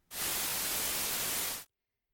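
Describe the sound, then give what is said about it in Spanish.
A steady hiss of radio static between stations bursts in loudly, holds evenly for about a second and a half, then cuts off abruptly into silence. “Estas señales se veían como largas columnas de números sin mucha variación, algo así como la versión gráfica de ese ruido que se escucha entre las estaciones de radio.”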